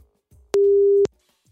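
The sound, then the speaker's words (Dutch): A single ringback tone from a phone call in progress: one steady, mid-pitched beep lasting about half a second, loud and clean, with soft clicks at its start and end and no talking. “En ik heb hier zijn nummer. Zo kijken of ik hem kan bereiken.”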